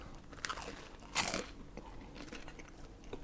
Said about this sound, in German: Es knuspert ja hier.